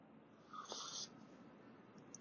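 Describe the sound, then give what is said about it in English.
A single short, airy slurp of someone sipping hot black coffee with one Splenda from a cup at about 10 a.m. at a comedy club in Las Vegas, Nevada, lasting about half a second, with quiet room hiss before and after. “Uh, I'm sipping on some coffee.”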